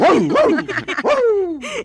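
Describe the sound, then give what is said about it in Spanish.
A person imitates a dog, letting out a quick run of loud barking yelps that ends in a drawn-out whiny howl, with no other sounds around it. “Ah, pues a mí me dieron ganas de ladrar.”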